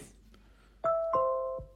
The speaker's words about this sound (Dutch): Ja, en dat is heel specifiek eh, het deurbelgeluid van de Apple HomePod.